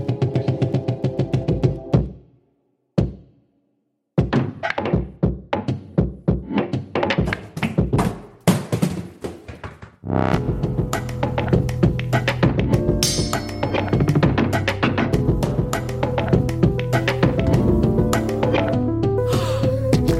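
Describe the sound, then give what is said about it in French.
Opening theme music of L'heure du thé, Dramatis's monthly theatre show, begins with sharp percussive stabs and short pauses, then swells into a loud, continuous full arrangement with steady rhythm and sustained tones, no voices. “Mais avant ça, générique.”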